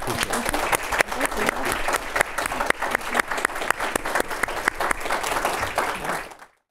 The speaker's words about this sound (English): please join me in giving our speakers a round of applause.